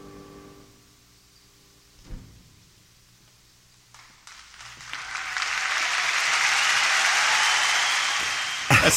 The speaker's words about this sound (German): dass sekundenlang andächtige Stille ja, herrscht, bis irgendjemand mal so ganz zaghaft anfängt zu applaudieren